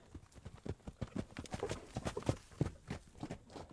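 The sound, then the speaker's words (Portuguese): A horse's hooves gallop in a quick, uneven rhythm of dull thuds, fairly loud, with no voices over them, as the horse is ridden bareback into the cerrado toward a mountain. “Eu só sei que quando eu percebi, o cavalo já estava a galope e eu montado no pelo entramos cerrado adentro e eu só queria chegar lá no pé daquela serra, lá naquela pedra.”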